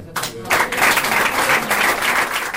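Sustained applause from a large group fills the Catalan Parliament chamber, dense and steady after a brief start, with no one speaking over it, as President Forcadell receives notification of the court sentence, surrounded by representatives of Junts pel Sí, the CUP and Catalunya Sí que es Pot.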